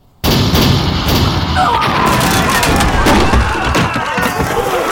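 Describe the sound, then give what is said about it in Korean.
Chongtong cannons fired from navy warships under commander Won Gyun at Japanese leaving by ship burst in abruptly and keep going as a dense, loud roar of booms and cracking blasts, layered into a continuous battle din with repeated sharp impacts throughout. “총통을 발사하라!”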